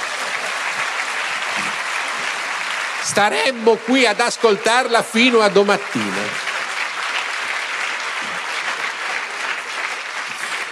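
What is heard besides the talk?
audience applause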